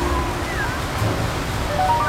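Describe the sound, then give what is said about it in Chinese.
Sea waves wash steadily onto a beach, a continuous hissing surf without clear individual breaks, with faint thin tones drifting through the noise. “两人在沙滩上漫步，冷凝看到沙滩上有很多的游客，他们都带着小孩在沙滩上玩耍，有的小孩在家长的帮助下追着沙雕玩。”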